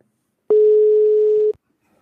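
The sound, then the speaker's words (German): A single steady electronic telephone ringing tone during a phone call sounds once for about a second, clear and fairly loud, with silence before and after and no voices. “Hörst du, hörst du den Klingelton gerade?”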